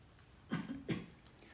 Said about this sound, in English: a reliable source of cat hair. You can hear him downstairs.